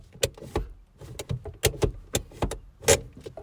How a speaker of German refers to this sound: Also, äh, wir melden uns hier live aus meinem Auto. Kann man es hören? Ja. Ja, man hört es. Warte, die Handbremse.